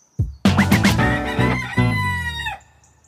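Loud rooster crow lasting about two seconds, a long harmonic call that rises and then trails off, preceded by a few quick clucks. There is no talking.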